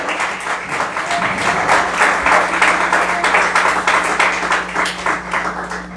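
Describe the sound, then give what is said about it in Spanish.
An audience applauds steadily for several seconds as an offering of applause to the Lord, a dense, loud wash of many hands clapping at once, with a faint low hum underneath and no one speaking. “Ay, hermano, si le van a dar ofrenda, denme la ofrenda de palmas al Señor, hombre.”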